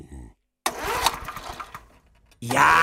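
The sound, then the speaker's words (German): A small lawn mower engine is pulled into life, chugging and sputtering loudly for about a second before dying down, with a voice talking just before and right after. “Ein, zwei Tage draußen schön und schon geht's an das Rasenmähen.”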